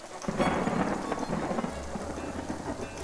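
Heavy rain pours down in a dense, steady roar, with a low rumble of thunder underneath, continuous for the whole stretch with no voices; a sudden downpour after black clouds took over the sky.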